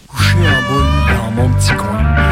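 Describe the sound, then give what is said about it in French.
A loud, drawn-out cat meow wavers up and down in pitch over a couple of seconds, continuous, with a brief dip between its yowling swells, as the cat is told to get into its carrier at the vet's. “Allez, on peut rentrer dans sa caisse.”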